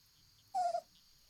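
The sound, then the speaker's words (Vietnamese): A single short, high-pitched dog yelp, sliding slightly downward and lasting about a quarter second, clear against a quiet background hiss. “Chúng tôi đi tới đâu, chó sủa rộ lên tới đó.”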